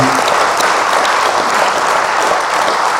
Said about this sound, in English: Yeah, that's a beautiful tribute. Maybe a round of applause for Dunn to be very fitting